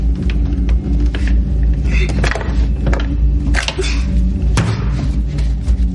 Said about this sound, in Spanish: Después utiliza una percha para desbloquear la puerta.